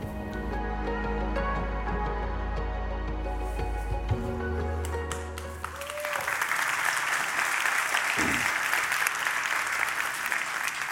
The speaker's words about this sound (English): Well, you can applaud that